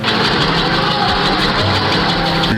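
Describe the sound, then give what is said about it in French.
A helicopter's rotor blades and engine keep turning after it has just landed inside the grounds of the prison at Réau, filmed by a detainee from his cell: a loud, steady mechanical roar with a faint rhythmic beat, continuous throughout with no voices. “On entend les pales d'un hélicoptère qui vient de se poser dans l'enceinte de l'établissement.”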